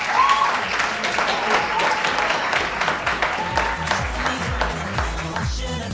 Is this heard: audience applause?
yes